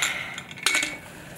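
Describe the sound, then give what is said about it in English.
A 45-year-old woman blows hard into a plastic spirometer, practicing breathing during coronavirus recovery, trying to force three ping-pong-sized balls to the top of the tube. A breathy rush of air as the balls rattle and click against the tube, with no talking. “She's trying to force these three ping pong sized balls to the top of this plastic tube called a spirometer.”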